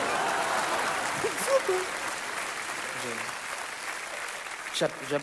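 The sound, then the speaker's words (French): Steady applause from an audience for the guest actor from The Artist, an Oscar winner for best actor, fills the whole stretch, a dense wash of clapping with a few voices briefly rising over it. “J'applaudis, quoi.”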